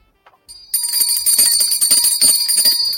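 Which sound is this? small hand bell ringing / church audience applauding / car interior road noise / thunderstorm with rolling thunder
small hand bell ringing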